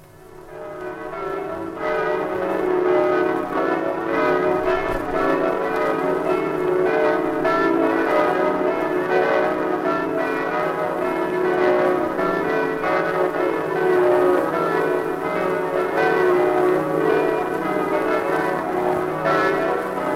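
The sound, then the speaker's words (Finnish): The Christ the King bell, one of the many church bells of Rome, Italy, rings steadily and loudly on New Year's night, its overlapping strokes blending into a sustained, resonant wash of deep tones and shimmering overtones, with no voices present. “Tässä yksi Rooman lukemattomista kellosävelmistä. Kellon nimenä on Kristuksen kuninkaan kello.”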